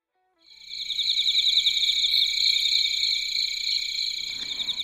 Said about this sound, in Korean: 들리세요? 풀벌레 소리? 이러니까 우리 마치 캠핑장에서 페스티벌을 즐기는 느낌 안 드나요?